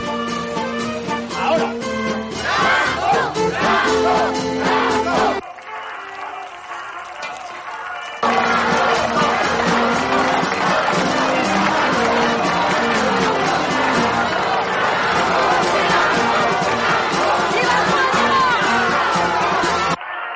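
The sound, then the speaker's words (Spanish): A dense crowd of school pupils cheers and shouts loudly as a car arrives, dropping briefly to a quieter murmur partway through before the roar swells back up and continues steadily. “El grupo de alumnos del colegio comienza a vitorear a Franco cuando llega el coche.”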